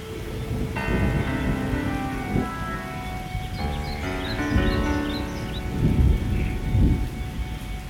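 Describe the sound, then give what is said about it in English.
Steady rain hisses beneath sustained piano and flute tones, while low rolls of thunder rumble in several softened swells, with faint shorebird chirps drifting through. “There are five sounds in this music piano, flute, shorebirds, thunder, and rain.”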